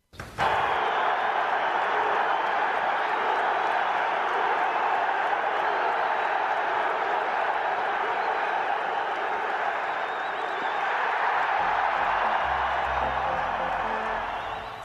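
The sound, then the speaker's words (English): A huge stadium crowd roars, cheering and applauding in one loud, sustained wall of sound that swells and holds steady for about fifteen seconds, with scattered whoops rising above the din, reacting to a Republican president throwing out the first pitch, wearing an FDNY jacket, six weeks after 9/11. “Listen to the reaction that a Republican president received in the heart of the most democratic state in the country six weeks after 9 11.”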